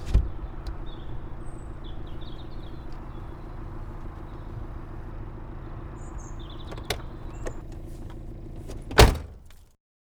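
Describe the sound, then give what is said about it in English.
Steady low rumble of a car with scattered clicks and shuffling as people get in, ending in one loud car door slam before the sound cuts off. “Get in the car.”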